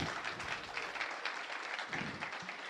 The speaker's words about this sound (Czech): A já schválně nechávám vyznít ten potlesk, protože už nemusím dodávat, že tahle ta veřejná nahrávka vzniká za účasti publika.